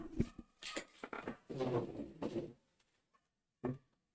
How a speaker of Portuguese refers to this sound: É isso. O cara abriu a porta pro cachorro sair. Voltei.